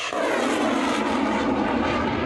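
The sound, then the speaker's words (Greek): A Russian attack drone's engine buzzes overhead in a steady, continuous drone, loud and unbroken throughout the short stretch, with no voices, during an attack by dozens of drones on the Black Sea port of Odesa, Ukraine. “Το λιμάνι τη Οδυσσού έγινε στόχο επίθεση με δεκάδε ντρόουν.”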